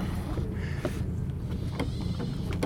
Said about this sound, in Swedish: Så kommer den. Den har fastnat där uppe. Nu håller vi på att ta ner storseglet här.